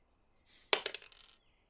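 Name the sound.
dice being rolled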